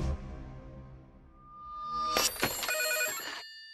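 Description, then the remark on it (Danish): Telephones at the Østjyllands Radio station ring out in a burst of overlapping bright bell tones, loud, after a low droning hum. The ringing clatters in quick strikes for over a second, with no voices. “Hvis nogle tidligere tulearbejdere mener at være blevet syge på grund af plutoniumsforgiftning, så er Østjyllands Radios telefoner åbne fra nu af.”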